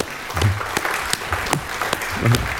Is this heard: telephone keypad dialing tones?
no